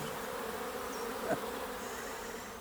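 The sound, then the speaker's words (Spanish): A bumblebee buzzes steadily for a few seconds, a continuous low droning hum, with a brief louder swell midway. “Y esta es la historia del abejorro musical.”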